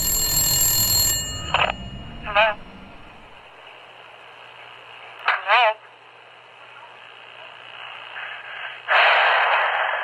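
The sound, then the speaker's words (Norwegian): A telephone rings with short warbling electronic bursts separated by pauses over a faint steady hum, after a brief burst of louder noise at the start. “Flere i ditt nærområde har blitt overfalt av denne gjerningsmannen i det siste, og du mottar denne telefonsamtalen.”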